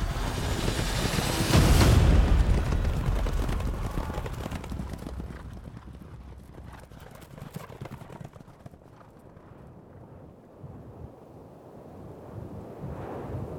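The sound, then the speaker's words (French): Horses gallop in a loud, rumbling burst of hoofbeats, thundering with a heavy low impact at first, then receding into a busy, fading clatter of many hooves over wind-like noise, as Darius whips his horses and flees the battle, setting off a panicked retreat behind him. “Horrifié, Darius fouette ses chevaux et prend la fuite, entraînant un mouvement de panique derrière lui, puis la débâcle de toute son armée.”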